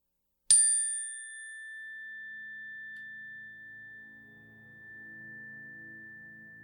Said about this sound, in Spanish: En el sonido de la campana van a hacer su petición. Comencemos.